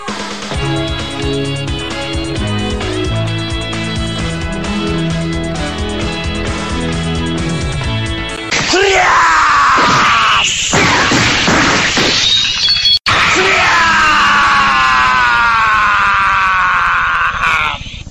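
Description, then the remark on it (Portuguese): A steady musical intro gives way to loud, strained fighting shouts, the special-move battle cries of an opening sequence, mixed with crashing impacts and shattering hits, with one sharp cut near the end. “são dos golpes da abertura, que é.”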